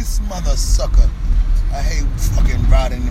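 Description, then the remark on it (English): A large coach bus rumbles past, its deep, heavy engine drone loud and steady throughout, with people talking over the noise. “Almost killed us with this bum ass coach bus.”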